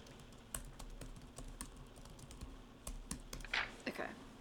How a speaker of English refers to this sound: I'm going to Google it. It's going to show up that I'm typing on here.